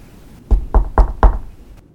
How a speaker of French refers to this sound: Cette veillée-là, elle était assise devant le feu, à la même place exactement que là où dorment ce soir ses enfants, lorsque des coups discrets retentirent à la porte.